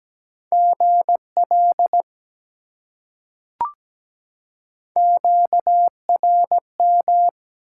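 Steady single-pitch Morse code beeps at 17 words per minute, sending common QSO elements, keyed in crisp dots and dashes at a moderate pace, in two bursts separated by a pause with one brief click between them; clear, no voices.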